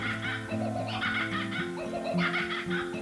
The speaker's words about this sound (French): Momo entendit des rires. Mais qui se moque de moi demanda-t-il. Personne C'est un. Soudain, un oiseau attrapa le gâteau de Momo. Kokabura termina Farah.